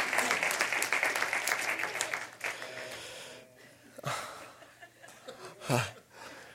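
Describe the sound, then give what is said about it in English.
A burst of audience applause, dense and steady for about two seconds, then thinning into scattered claps and light laughter as a voice begins speaking. “Don't clap.”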